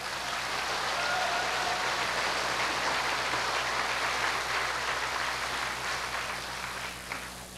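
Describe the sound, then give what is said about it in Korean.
Sustained applause from a large crowd, a dense wash of clapping that stays loud and steady for several seconds before easing slightly at the end, with no voices over it. “이럴 땐 박수 치는 것입니다.”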